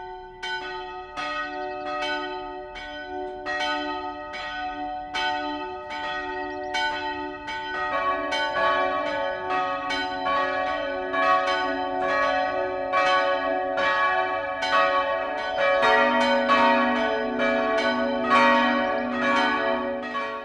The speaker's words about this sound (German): ins vierstimmige Geläut der evangelischen Kirche St. Gallus in Lanzendorf mischt sich das Rauschen des Weißen Mains.